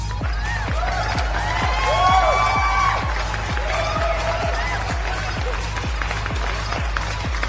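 A crowd applauds and cheers, with steady rhythmic clapping, rising whoops and whistles over a constant low rumble, all at a fairly loud, even level.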